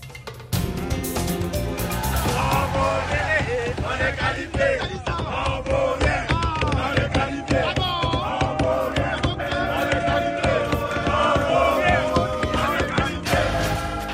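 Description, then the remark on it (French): A football stadium crowd roars and chants steadily, demanding a goal as a free kick 25 to 30 metres out is awaited: a dense, loud wall of voices with rising and falling sung shouts that continues without a break for the whole stretch. “Alors, il est où ce coup franc le, public qui, qui, réclame un but, Il est à 25-30 mètres.”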